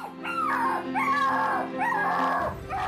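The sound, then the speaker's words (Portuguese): A jealous dog named Faial whines in a series of high, wavering cries, several drawn-out whimpers in a row, steady in loudness, with no one talking. “Faial mostrava-se ciumento e gania.”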